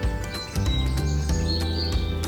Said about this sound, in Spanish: Habían brillantes azulejos y águilas que vuelan en lo alto, pájaros que gorjean y otros que cantan.